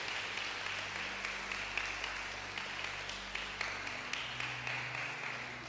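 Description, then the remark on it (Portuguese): An audience breaks into sustained applause for Jesus, a dense, steady wash of many hands clapping with a few sharper claps standing out, continuing at an even level throughout. “Dê a mais linda salva de palmas para Jesus.”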